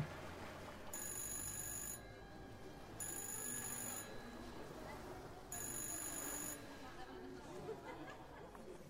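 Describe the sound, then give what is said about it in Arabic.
A telephone rings in three bright bursts, each about a second long with short gaps, half-buried under a very noisy family home full of overlapping chatter, music and background noise. “وطول الوقت ده التليفون لسه بيرن”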